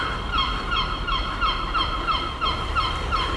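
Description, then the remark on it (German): Seagulls call over and over in quick, fairly regular bursts against a steady low rumble in the city centre of Kiel on Reformation Day, the cries moderately loud, with no one speaking. “Was man hier hört, sind die Möwen im Hintergrund.”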